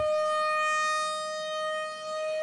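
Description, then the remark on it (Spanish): A steady electronic siren tone holds one high pitch with bright harmonics, loud for a couple of seconds with no speech over it, a news-alert siren introducing breaking sports news. “Sirena entonces, información de José Ángel Rodríguez.”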